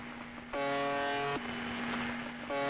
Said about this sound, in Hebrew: האמת היא שהצליל הבאזי אבל המונוטוני הזה שלה הוא קצת כמו צפירת הרגעה. זה בעצם אומר איכשהו שהכל בינתיים כרגיל והכל זורם. הנה זה למשל מה שאני שמעתי אתמול בערב.